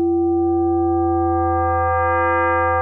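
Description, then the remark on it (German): A steady modular synth tone holds a strong low fundamental while a stack of bright overtones gradually emerges above it, giving a slightly metallic, ringing quality. No voices, just the sustained electronic sound. “Wenn wir die reinnehmen, haben wir es ist immer dieser Grundton zu hören und dann kommen verschiedene Obertöne dazu.”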